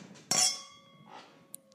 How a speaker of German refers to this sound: Das bedeutet für uns, die zehn Minuten sind rum und wir nehmen nochmal einen Schluck, stoßen nochmal an.